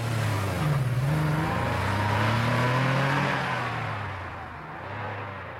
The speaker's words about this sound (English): The grin on Rex's face drops like a loose rock from a tall hill fires up his patrol car, and puts it in gear.